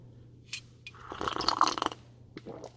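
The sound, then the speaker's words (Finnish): A wet slurp of someone sipping a drink, lasting about a second, with a few smaller mouth noises around it and a steady low hum underneath. “Anteeksi, mä hörppäsin nyt anteeksi ilmoittamatta.”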